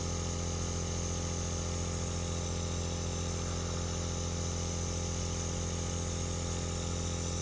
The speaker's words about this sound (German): Ich muss mir das mal eben ansehen. Der Kompressor steht im Keller. Ich muss mir das mal eben anschauen. Dass es überhaupt so laut ist.